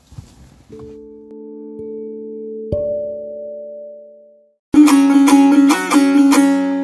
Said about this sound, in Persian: منم تشکر میکنم اینجا بریم با هم موزیکمون رو گوش بدیم و برگردیم